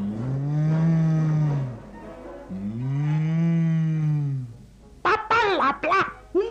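A cow gives two long, drawn-out moos, each rising and falling, loud with a short pause between them, followed by a few quick, choppy vocal bursts at the end.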